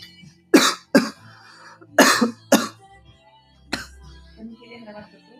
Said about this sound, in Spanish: Tutorial de cómo toser.